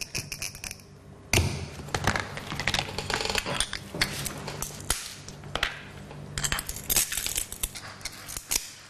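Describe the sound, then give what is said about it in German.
Glass being crumbled away with breaking pliers after scoring with a glass cutter, roughly reducing the glass to its later fitting size: a steady run of sharp crunches and brittle snaps at an irregular pace, with no one talking. “Danach muss er mit Glasschneider und Brechzange das Glas grob auf die spätere Passgröße herunterbröckeln.”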